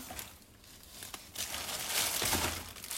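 A plastic bag crinkles and rustles while trash from a bin is sorted, a continuous crackling handling noise that swells louder toward the end, with no one speaking.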